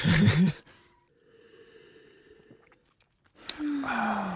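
Mouth sounds of someone sipping champagne, with soft wet swallowing noises and a faint ringing tone, framed by brief bits of voices at the start and end.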